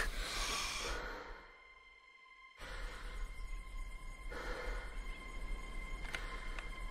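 Slow, heavy breaths rasp, a long noisy exhale followed by a quiet pause, then more drawn-out breaths over a faint steady hum, with no talking.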